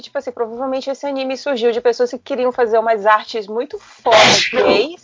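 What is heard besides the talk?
sneeze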